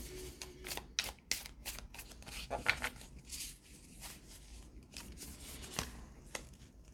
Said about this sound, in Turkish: Sonuç kartları çekeceğim.